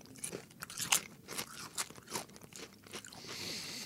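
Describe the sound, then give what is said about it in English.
Crunching of a salt and vinegar potato chip: a run of sharp, crackly bites and chews in an irregular rhythm, fairly quiet, with no talking over it. “I'm not going to say no to any salt and vinegar potato chip, but let's see about this one.”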